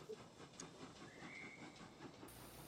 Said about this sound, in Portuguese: Que? Olha o trem. Café com pão, café com pão.